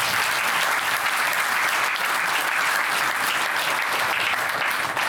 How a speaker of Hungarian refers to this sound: Azt a... mindenképpen tapsoljuk meg azért ezt a fiatalembertől. Már csak azért is, mert itt ültök most már lassan két órája.